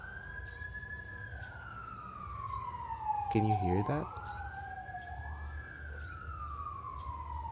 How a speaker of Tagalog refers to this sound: Is that a siren? I'm not sure if that's an ambulance or a fire truck.